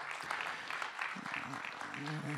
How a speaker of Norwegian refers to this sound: Ja, skal vi gi dem en applaus, eller? Eh, hva tenker dere? Ja, så bra. Så bra.